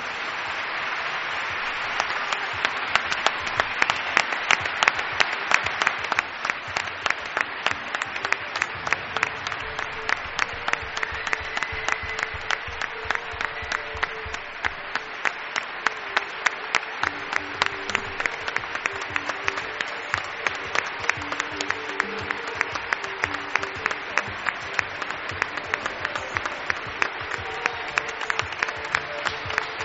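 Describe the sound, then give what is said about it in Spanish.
Steady audience applause for a man who backed the radio show Milenio 3 at its 10th anniversary, dense and sustained with a rapid, even pattern of many hands clapping at a fairly loud level, and no voices over it. “hombre que apostó por Milenio 3 y merece nuestro aplauso, nuestro reconocimiento.”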